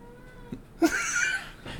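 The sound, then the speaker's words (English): A female cat meows on cue, a single drawn-out, clear meow rising with a bright harmonic cry and then trailing off, with no one talking over it. “Maybe we could have a, a cat podcast and then she can just do all.”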